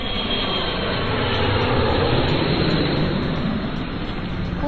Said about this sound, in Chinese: 飞机飞，轰轰轰。